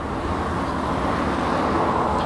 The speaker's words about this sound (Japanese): これちょっと今実はね幹線道路沿いにいて若干ねこの 音声がちゃんと響いてるとか若干不安なんですけども